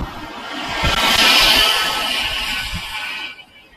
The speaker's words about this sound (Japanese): うるさい車がいました。